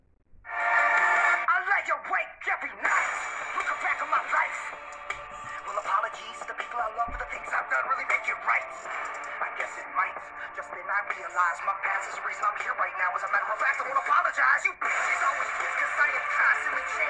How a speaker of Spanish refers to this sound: Y dije, Dios, qué buena rola. El video, la mezcla de hip hop con rock new age, la interpretación rabiosa del vocalista y la sensación de que lo que está diciendo no solo lo siente, sino que lo vive, me atrapó de inmediato.